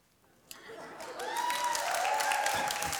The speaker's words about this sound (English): now, all you have just cheered.